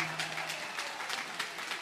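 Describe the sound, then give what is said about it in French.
Steady applause from a large crowd at a rally, a dense, continuous wash of clapping at moderate volume with no voices standing out, holding even throughout. “Eh bien, vous voyez, vous applaudissez tous.”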